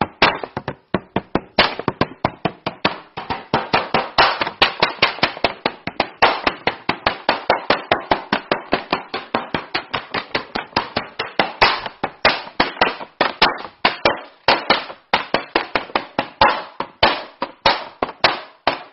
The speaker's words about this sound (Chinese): 甚至我不敲鼓，我不用鼓眼，我敲纸，用牛皮纸啪啪打，能打出什么样跟鼓不一样的声音？